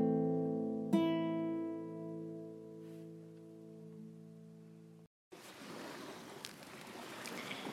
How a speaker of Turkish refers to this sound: birlikte yine güzel güneşli bir Selanik gününde sesten de anlaşılacağı üzere dalgalı deniz kenarındayız.